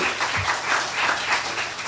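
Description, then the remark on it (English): An audience applauds together for a man's sister, a dense, steady wash of many hands clapping at moderate volume for a couple of seconds, with no voices rising above it. “So I, I think his sister gets a round of applause too.”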